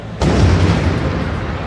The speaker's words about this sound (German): Dann um 21.20 Uhr ein weiterer dumpfer Knall.